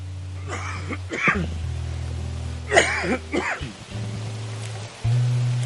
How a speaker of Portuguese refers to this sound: Tô rouco, tá vendo? Deixa eu tossir um pouquinho aqui.